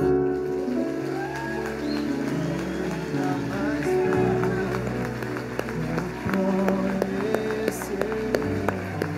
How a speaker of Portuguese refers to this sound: Dê um aplauso Senhor.